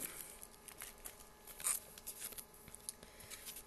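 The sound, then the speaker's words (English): Scissors snip and rustle through paper in a quick, uneven series of crisp cuts as a second package is being opened, fairly quiet, with no talking. “Almost cut into the piece of paper she sent me.”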